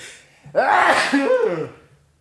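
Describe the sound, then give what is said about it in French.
A single loud sneeze, caused by hay fever, bursts out with a sharp explosive onset followed by a wavering, voiced tail that fades after about a second and a half. “cet éternuement, le c'est vraiment génial. était sponsorisé par le rhume des foins.”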